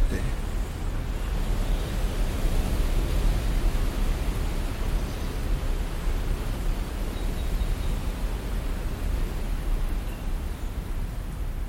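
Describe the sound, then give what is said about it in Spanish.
Strong wind blows in a steady, continuous roar, heavy in the low end with a constant rushing hiss, fairly loud throughout with no clear pauses or distinct gusts. “Percíbete sentado en un monte el viento corriendo fuerte.”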